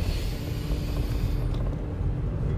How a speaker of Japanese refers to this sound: 実はこれ、あの、車の中で撮ってる